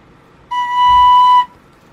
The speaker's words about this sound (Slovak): Prepač, e, že napríklad písmeno e, tón H, uh-huh. hej, to je tento tón